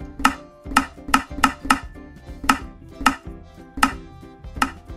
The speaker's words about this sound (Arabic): لكنه انتبه بعدما هدا قليلا بانه يستطيع ان يرسم اشكالا فريده بالحفر بدلاً من استخدام الألوان وصار يمسك المطرقة مع الحجر ويحفر رسوماته على ألواح الخشب